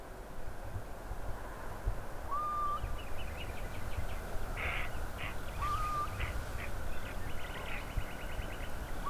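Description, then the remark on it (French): A nocturnal bird calls twice with short, rising whistled notes over a steady hiss of night ambience with faint chirping insects or birds in the background. “C'est un oiseau nocturne.”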